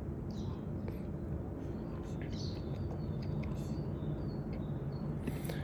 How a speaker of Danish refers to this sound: Skønt med fuglestemmer. Rigtigt forår. Det er så dejligt,